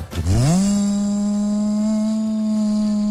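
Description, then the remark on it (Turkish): A vacuum cleaner motor starts up, its pitch sweeping upward over half a second before settling into a loud, steady droning whine, with no voices. “Elektrik süpürgesi bende de bir ara problemdi ya.”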